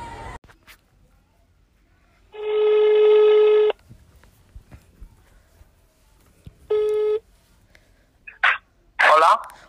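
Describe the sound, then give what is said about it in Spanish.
A phone ringback tone sounds twice, a long steady ring then a shorter one after a pause, clear, as the radio programme Cómo no hacer un programa de radio calls a listener in Seville, followed by brief bursts of a voice answering. “la mejor solución es que te voy a llamar. Así que prepara el teléfono porque ahora mismo vamos a hablar tú y yo de este drama.”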